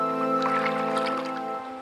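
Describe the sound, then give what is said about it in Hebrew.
Oars paddling a rowboat dip and splash through water in a few quick, wet strokes, fairly loud, over a steady humming musical tone that continues throughout. “זהו עולם שאין בו מכוניות וכבישים, אלא רק סירות מנוע, סירות מפרש, אוניות מסע וסירות עם משוטים.”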